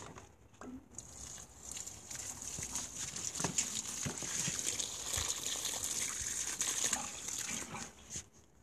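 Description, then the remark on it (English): Water is poured steadily into a bucket of potato plants in a garden, a continuous splashing, pattering stream with a few brief gurgles and knocks, fairly quiet, lasting several seconds with no talking. “So I'm just gonna water this bucket.”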